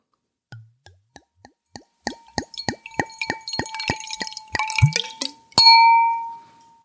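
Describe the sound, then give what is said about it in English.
Field Recordings Franc 2017 wine glugs into a glass, starting with a few scattered drips, then a steady burst of gurgling pours, and ending with a bright ringing clink of glass. “Without further ado, I'm going to go ahead and pour myself some.”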